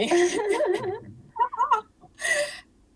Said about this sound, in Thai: อันนี้เสียงอะไรอะเสียงแมวอเสียงแมวใช่ไหม